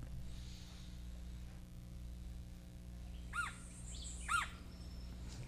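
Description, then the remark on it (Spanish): A Puerto Rican woodpecker (Melanerpes portoricensis) gives two sharp, harsh calls about a second apart, each a quick rising-and-falling squawk, standing out over a low, steady background hum. “Este, estamos escuchando el pájaro carpintero de Puerto Rico. Melanerpes puertorricensis.”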